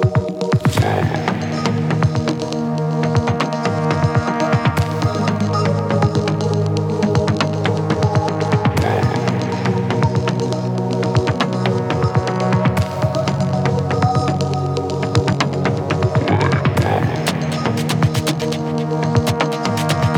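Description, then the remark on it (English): A loud, dense electronic track with heavily saturated, overdriven distortion and pitched, resampled voice material: thick sustained buzzing tones layered with rhythmic clicks and hits, playing continuously with no one speaking. “Um, but uh, yeah, so the voice stuff is a lot of um, pitching and uh, resampling and uh, saturation, which is like form of which is distortion, basically mm-hmm.”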